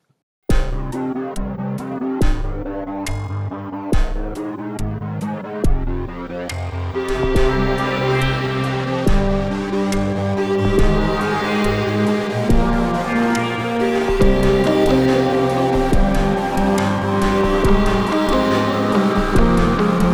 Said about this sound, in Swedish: som sagt, jag tycker det är jättekul att man eh, får remixa deras eh, jingel. Um, eh, och jag, jag, tycker det här låter bra.